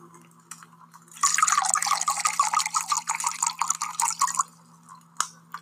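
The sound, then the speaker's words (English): Wine pours steadily into a glass for about three seconds, a bright, gurgling splash, with a few faint drips and clinks before and after. “Let me pour you a nice glass of wine.”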